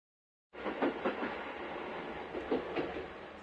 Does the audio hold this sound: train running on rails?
yes